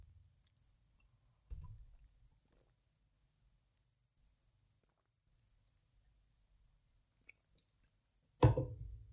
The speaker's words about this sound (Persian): من آب بخورم